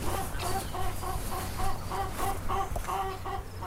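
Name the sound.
chickens clucking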